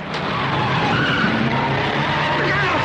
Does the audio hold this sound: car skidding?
yes